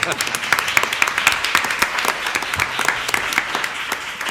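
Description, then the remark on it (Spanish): A crowd applauds steadily, many hands clapping in a dense, crackling wash with a few sharper claps standing out, sustained at an even level throughout. “Hay que aplaudir, Bravo.”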